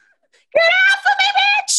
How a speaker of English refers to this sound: I love her screams, by the way. Like, I really, she is a fantastic scream queen.